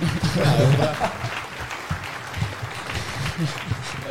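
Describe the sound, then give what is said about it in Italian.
An audience claps steadily for about four seconds, a dense, even patter of many hands, with voices briefly heard over the applause at the start. “Bene, bene, applauso per questo.”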